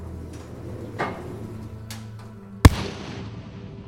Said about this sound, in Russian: Убийца стреляет трижды в сердце и плечо Политковской.